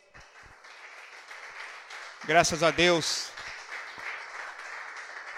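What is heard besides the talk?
audience applause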